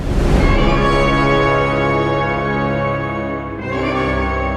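A short, slow orchestral melody of four sustained notes, a recurring motif in a film soundtrack, plays loud and full, with rich layered harmonies swelling and then shifting near the end; no one speaks.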